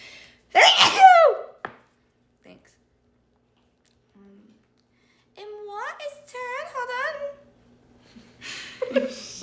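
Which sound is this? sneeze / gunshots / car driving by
sneeze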